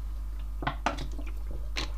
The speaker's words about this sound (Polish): Więc... ja muszę wziąć łyka wody, przepraszam bardzo.